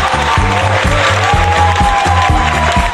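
Steady, dense applause on a radio program for the show's producer fills the whole three seconds, loud and continuous, layered over a pulsing, rhythmic bass line of music beneath it.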